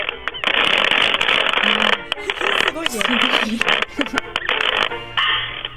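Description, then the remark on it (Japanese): A metal washboard used as a musical instrument, scraped and tapped with sewing thimbles worn on the fingers in a fast, steady rhythm, loud, its rattling strokes broken by short pauses while a voice briefly talks over it. “そのウォッシュボードを、あのお裁縫する時の指抜きみたいのをつけて叩くことでリズムを出してます。”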